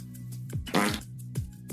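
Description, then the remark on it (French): A quick run of short, buzzy fart noises, four or so in under two seconds, each dropping in pitch, with one louder, raspier blast near the middle, clear. “Arrêtez hein. de péter.”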